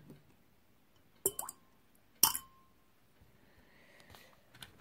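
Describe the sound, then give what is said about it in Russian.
Three coins drop one after another into a container of water for a ritual, each landing as a sharp plink with a brief ringing tone, two clear ones then a fainter one, otherwise quiet. “И три монеты. Вот эти три монеты кидайте в воду.”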